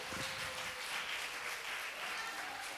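A crowd applauds steadily, a dense, even crackle of many hands clapping at once that holds without pause for the whole stretch, fairly soft overall and with no voices.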